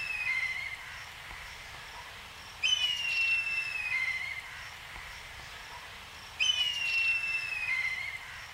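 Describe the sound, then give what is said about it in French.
A black kite, a protected raptor that has returned, gives three shrill, quavering whistled calls, each sliding downward in a wavering trill, with pauses between them over a steady hiss of background noise. “Guettez-le, écoutez-le, il est revenu.”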